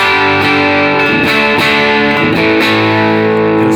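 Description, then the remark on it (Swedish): Loud, heavily distorted electric guitar through an LED-clipping pedal, playing sustained chords with a few strummed changes, thick buzzing harmonics throughout and no talking. “så kör vi eh, lysdiod då.”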